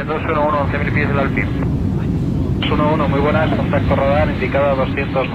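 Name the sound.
airplane in flight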